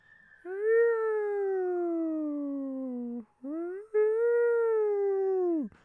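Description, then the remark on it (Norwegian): A voice imitates an ambulance siren, holding a long wailing tone that slowly falls in pitch, breaking briefly before rising into a second sustained wail that drops off sharply at the end. “Det var også meg, men hørte dere den faktiske, eh, faktiske ambulansen?”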